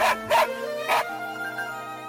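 A dog barks three times in quick, uneven succession, sharp, followed by a steady tonal hum that carries on after the barking stops.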